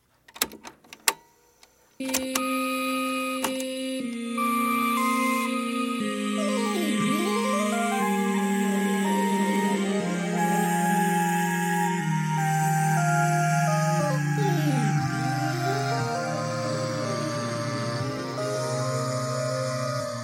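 A few sharp clicks, then dense, sustained electronic tones layer up, with swooping pitch arcs rising and falling again and again. An experimental electronic piece plays steadily and fairly loud, with no voices.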